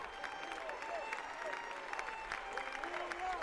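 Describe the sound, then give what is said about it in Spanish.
A crowd applauds steadily, a dense patter of many hands clapping at once, with scattered voices calling out and murmuring through it, outside the exit of the Córdoba town hall at the farewell to Julio Anguita, drowning out a violinist playing there. “luego se puso a la salida del ayuntamiento una violinista problema es que no se escuchó, porque como todo el mundo empezó a aplaudir, no se escuchó, pero ahí estaba.”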